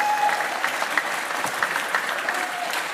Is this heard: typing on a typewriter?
no